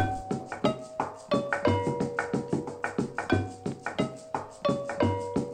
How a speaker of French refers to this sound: le hus ou encore l'utsu, un petit clavier pentatonique qu'on entend ici.